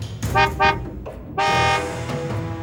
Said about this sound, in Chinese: 车子紧跟在那群人后面缓行，前进了几公尺之后，车子又停了下来。隐隐约约听到杂讯中夹杂的喇叭声。